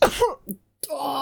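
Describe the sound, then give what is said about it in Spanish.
A single sharp sneeze bursts out loudly, tapering into a brief breathy tail, then after a short silence a voice breaks into soft laughter. “te va a llegar, te, tenía que haber tapado con el hombro, o sea, con el, con el interior del... ¿Te voy a contagiar ahora?”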